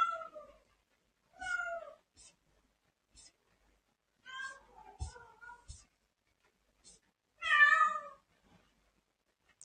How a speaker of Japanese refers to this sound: 猫が騒いでましたが、大丈夫かな